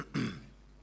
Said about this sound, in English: Listen to the coughing. you got my sympathy. really.